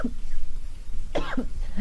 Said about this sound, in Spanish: Ay, no me gusta toser porque cuando toso me hagan a vomitar.